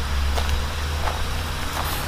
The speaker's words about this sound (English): Finally, a car. Think they'll pick us up?